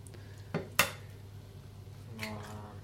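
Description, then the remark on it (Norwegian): Two sharp taps ring out as eggs are cracked into a pyttipanne (Norwegian hash) mix in a frying pan, then a soft sizzle rises briefly over a low background hum. No one speaks. “Nå har du lyden av at det er noen egg som blir knust opp i pyttipannemiksen her.”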